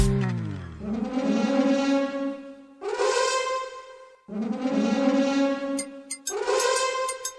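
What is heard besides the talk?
elephant trumpeting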